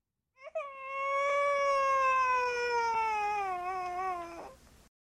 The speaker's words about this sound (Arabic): جاء صوت بكاء طفل من الحجرة ولكن النادلة لم تفعل أي شيء سيتوقف الرضيع عن البكاء وحده